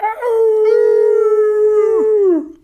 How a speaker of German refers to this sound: Doch dann kamen die Wölfe.